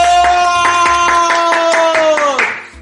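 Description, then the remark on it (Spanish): Steady, rhythmic hand clapping, about four or five claps a second, over a sustained bright tone. The sound stays loud throughout, then the tone bends downward and fades at the end. “¡Aplausos!”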